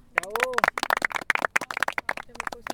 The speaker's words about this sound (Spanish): Entonces ahora un aplauso.